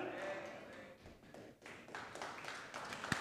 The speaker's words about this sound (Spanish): Bueno, ese aplauso dáselo a Cristo Jesús.